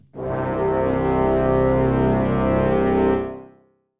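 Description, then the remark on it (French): A deep, buzzy synthesized tone holds steady for about three seconds, the notes C0, C1 and C2 stacked an octave apart into one thick, rich sound, then fades out smoothly. No voices. “Et avec la note C0, Et enfin le résultat avec l'ensemble des trois notes C0, C1 et C2.”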